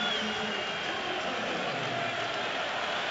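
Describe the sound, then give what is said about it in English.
A dense, steady roar of a Toronto arena crowd cheering and jeering at a basketball game as Giannis misses a free throw, with Drake leading the cheers from his courtside seat; loud and continuous for the whole stretch, with no single voice standing out from the mass of noise. “Giannis misses again amidst the noise from the crowd, with Drake leading the cheers from his courtside seat.”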